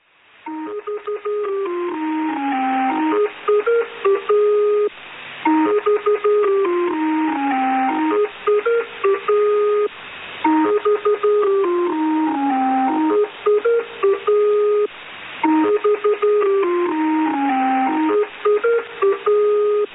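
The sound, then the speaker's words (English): A shortwave numbers station broadcast: a thin, electronic tune repeats four times in steady, loud cycles, with the narrow, boxy tone of a radio transmission and no voices. “the best known numbers station was the Lincolnshire Poacher”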